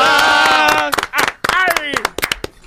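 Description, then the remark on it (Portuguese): A burst of applause for comedian Cris Pereira, recognised in 2022, with sharp, uneven handclaps, mixed with loud shouting and cheering voices that swell at the start and return in bursts over the clapping. “Salva de palmas para Cris Pereira!”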